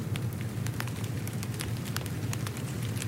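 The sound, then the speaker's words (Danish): Close rain patters and crackles steadily on the ground over a dense low rumble, with huge trees around also struck by the rain, sharp pops scattered irregularly throughout, sounding much like a crackling fire. No voices are present. “Det lyder næsten ligesom ild. Det er nemlig knitrende.”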